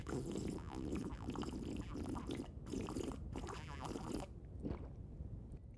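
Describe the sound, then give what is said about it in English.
Quiet sipping of coffee: wet slurping and gurgling swallows run for several seconds, then trail off into a few soft mouth noises. No one speaks. “Let me have a sip of coffee first before we dive into it.”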